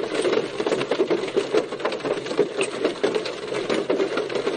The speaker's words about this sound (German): Das soll ein Regen, glaube ich, sein. Also ich weiß nicht, wie gut das hier aufgenommen wird immer. Deswegen sage ich es euch lieber. Ähm, es soll, glaube ich, Regen sein, was auf einem Dach tropft. Also richtig dicke Tropfen.